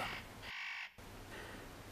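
A spotted nutcracker gives harsh, rasping, crow-like calls in a quick series of about three grating notes, loud, with no voices present.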